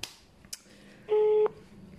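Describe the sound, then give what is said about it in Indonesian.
A phone keypad tone sounds once while a phone call is being dialed, a loud, steady electronic beep lasting about a third of a second, with a couple of sharp button clicks earlier against a quiet background. “Kita telepon aja dulu ya.”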